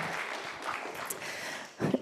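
A crowd claps steadily in a continuous patter of applause, moderately loud, swelling briefly near the end before carrying on.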